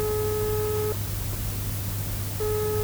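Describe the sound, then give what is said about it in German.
A telephone ringing tone: a steady mid-pitched electronic tone sounds for about a second, pauses, then starts again, over a constant low hum with no one talking. “Oh, es klingelt.”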